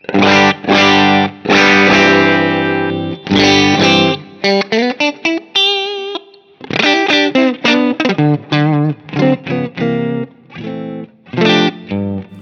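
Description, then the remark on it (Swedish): A slightly overdriven electric guitar with a little plate reverb plays loud, choppy chords, then a run of short single notes and a held, wavering note before the strumming returns. The guitar plays alone, with no voices. “Så, så att eh, vi har liksom ett, eh, ett ljud som är hyfsat rent men ändå spricker då man, då man tar i.”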